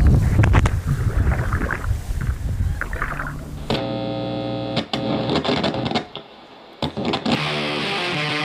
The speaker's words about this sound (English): Lots of people live on this lake, Keith. There's a lot of boats out right now.